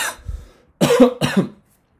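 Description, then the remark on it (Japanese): A person coughs: a short breathy burst, a pause, then two loud harsh coughs in quick succession, followed by silence. “最後、咳しちゃいましたね。”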